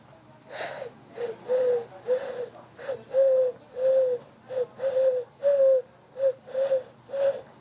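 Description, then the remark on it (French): A person imitates a turtle dove's call with a series of about a dozen soft, breathy cooing notes in a steady rhythm, moderately loud, with no talking. “Alors je ne sais pas si je vais réussir à, à faire le cri de la tourterelle ou même si ça y ressemble, je ne sais pas.”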